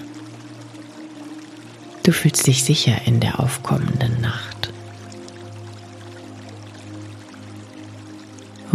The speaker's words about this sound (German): Möglicherweise hörst du mittlerweile aus der Ferne Wasser plätschern. Du kannst noch nicht ganz zuordnen, wo es herkommt, doch das ist egal.